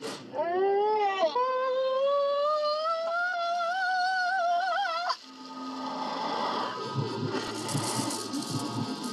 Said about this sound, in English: the scream is terrible. what cat did you strangle to get that? The cat that you hired. That's her voice. You mean you didn't dub that? No. That's hers? Yeah. Oh, really? Yes. I'm going to run that back. You kind of want to hear the scream.